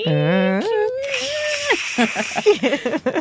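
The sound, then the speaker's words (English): A voice imitates the dial-up modem once used to connect a Mac computer to a library: steady squealing tones that step in pitch, then a hissing screech and a run of choppy, garbled bursts, loud for about three seconds. “I used to connect my Mac computer over a modem to the library Right.”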